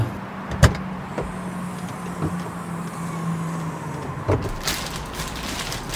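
A car trunk is opened in a parking lot and luggage is loaded into it, with a few scattered clunks and thumps over a steady engine hum, and a brief mechanical whir toward the end.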